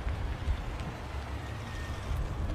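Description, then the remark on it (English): Steady low rumble of Elon Musk's security detail vehicles pulling up, idling or rolling slowly, a deep continuous engine drone with faint road noise above it and no voices. “His security detail pulled up and blocked all of their pictures.”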